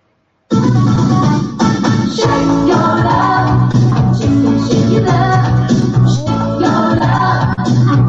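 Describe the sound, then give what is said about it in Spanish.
Upbeat 1980s pop music plays steadily and loudly from a Siri smart speaker after a spoken request, starting abruptly after a brief silence, with a strong bass line, rhythmic beat and bright synth layers, heard without anyone talking over it. “Está sonando la estación Éxitos Pop de los 80.”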